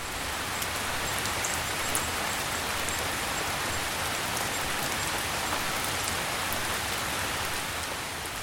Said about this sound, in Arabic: اذا كنت ممن يجدون في صوت المطر راحه وهدوء اهديك هذه الموسيقى الجميله